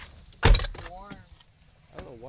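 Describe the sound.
A single solid truck door thunk as people step out of the truck onto the side of a road in Bergholz, followed by faint voices and light movement in quiet outdoor surroundings.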